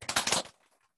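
A brief burst of applause from a crowd, many hands clapping in a dense, crackling flurry that stops abruptly after about half a second and trails off into quiet.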